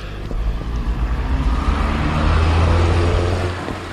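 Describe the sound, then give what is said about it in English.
A car drives past on a road, a steady low engine and tyre rumble that swells as it gets closer, peaks, then begins to fade away. No one speaks. “Let this car pass.”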